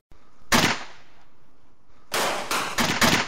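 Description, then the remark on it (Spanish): Loud gunshots ring out: one sharp shot, a pause, then a rapid burst of four or five more in quick succession, each with a short echoing tail. No voices. The burst of gunfire starts a clash in which farmers fall one by one. “Empieza la riña tras una ráfaga de balas.”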